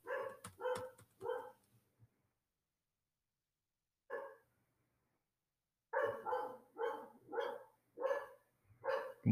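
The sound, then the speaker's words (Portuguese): A dog barks in sharp bursts: three quick barks, a pause, one lone bark, then a steady rhythmic run of about six more, with no voices. “Meu cachorro tá latindo.”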